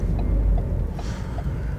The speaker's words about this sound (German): Ah, hier ist richtig, richtig Verkehr und ich möchte gerne links abbiegen.